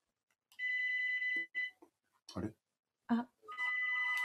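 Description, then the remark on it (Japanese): A phone rings with an unsolicited sales call, a steady electronic tone in two long ring bursts separated by a pause in which people briefly speak and laugh, fairly loud. “お電話だ。”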